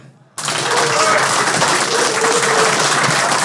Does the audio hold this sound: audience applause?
yes